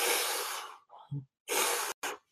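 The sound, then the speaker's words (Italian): Loud deep breaths demonstrated in quick succession as a breathing exercise: one long forceful breath, a soft throaty pause, then another strong breath and a short sharp puff, with no talking. “Se tu vedi una persona e gli dici devi fare esercizi di respirazione, tipo”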